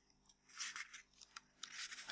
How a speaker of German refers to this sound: Man hört mich blättern.